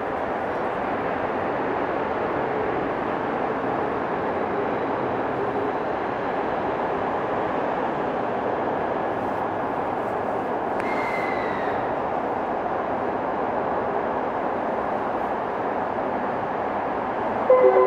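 A Tokyo Waterfront Area Rapid Transit (Rinkai Line) 70-000 series electric commuter train running at speed between Shin-Kiba and Tokyo Teleport: a steady, dense roar of wheels and motors with a thin constant whine, and a brief high squeal partway through. No one speaks.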